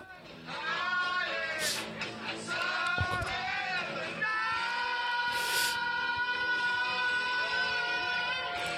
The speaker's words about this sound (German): Hört ihr die Leute pfeifen und. Das ist ja Wahnsinn, die haben sich gefreut.